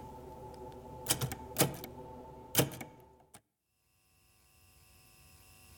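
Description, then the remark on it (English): A few sharp, isolated typewriter key clacks struck at an irregular pace over a low steady hum, then the sound cuts off into near silence. “Hey, typewriter's here too.”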